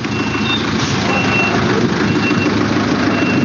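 A four-stroke diesel engine of about 3 to 3.5 litres, on a street, runs loud with a steady, rapid knocking clatter from a knocking connecting rod in its low rumble, its tappets needing adjustment, while faint high-pitched beeps sound intermittently in the background.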